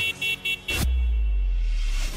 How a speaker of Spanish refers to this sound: claxon en tu auto es solo para una emergencia, no para faltar al respeto a los demás.